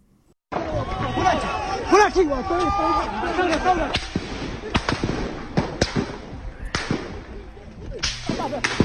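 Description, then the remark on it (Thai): Sharp, loud cracks of gunfire as soldiers open fire on protesters against the military government, late at night on 14 March in Hlaing Tharyar, Yangon, Myanmar: several sharp bursts spaced irregularly over a noisy background of shouting crowd voices. “เสียงปืนที่ดังขึ้นเป็นระยะระยะ จากการที่ทหารเปิดฉากยิงผู้ประท้วงต่อต้านรัฐบาลทหาร ในช่วงกลางดึกของวันที่ 14 มีนาคมที่ผ่านมาในย่านไลตายาของนครย่างกุ้ง”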